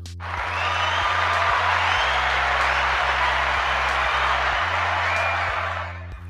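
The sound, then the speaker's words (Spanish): A crowd applauds steadily for several seconds, a dense wash of many hands clapping with some faint cheering, fading out at the end. “Pues después de estos aplausos y esta introducción, coger lápiz y papel que empezamos con los ingredientes.”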